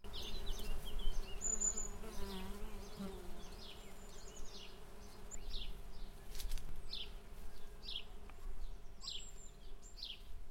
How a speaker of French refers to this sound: La nature bat son plein, le soleil est au zénith, les tilleuls sont en fleurs et les abeilles butinent.